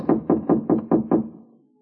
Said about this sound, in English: You climb up to 2B and you knock on a door that's thinner than Melba toast and has about as much resistance.